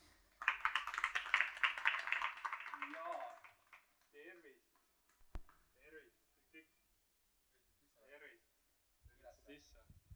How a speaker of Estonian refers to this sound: esmalt teeme palava aplausi meie moderaatorile, daamid-härrad